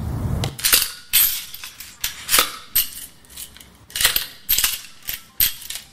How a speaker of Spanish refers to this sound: Cadenas de metal que golpeaban barrotes y se abre una reja y se escucha un va uno, va uno.